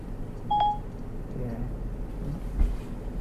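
A Bluetooth key-finder tracker gives a short, clear electronic beep near the start, then a fainter blip later, over a steady low rumble of background noise.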